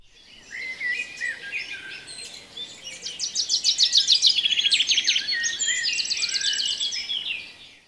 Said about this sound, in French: Qu'entends-tu Est-ce des oiseaux ou des grenouilles. On entend des oiseaux.